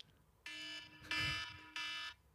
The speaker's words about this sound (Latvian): Man liekas, tā modinātā skaņa. Es vienkārši es sapratu, ka man besīja jebkura modinātā skaņa.